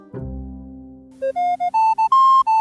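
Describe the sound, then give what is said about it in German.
A radio traffic-report jingle that aired between 1979 and 1984: a deep resonant tone swells and fades, then seven crisp electronic notes step upward in a short, bright melody, loud and clear with no voices. “Das LKA hat sich schon in den 90ern vom BR einen Bayern 3 Verkehrsjingle besorgt”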